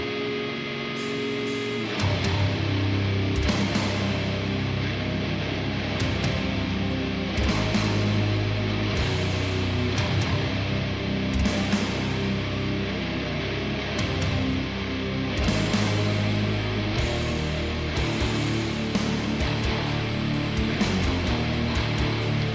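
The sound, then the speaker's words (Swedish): A full band plays steadily with thumping drums and a rattly, thin, lo-fi distorted guitar up front, dense and loud throughout with no voices. “Fin, fin produktion. skramligt snåldist.”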